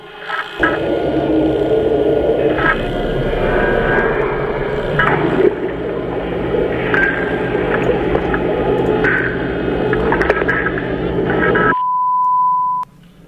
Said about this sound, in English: I'm going to bring up uh, the audio a little bit so that people can hear it, but it's not pretty audio. Not pretty audio. What does that just mean? as a heads up. It's like static and stuff. Let's just listen to it. It's about 16 seconds.